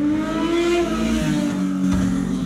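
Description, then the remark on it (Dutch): A motorcycle engine drones loudly, its steady rising pitch suggesting revving as it passes, with no voices over it. “Oké, ik kwam even een motor langs.”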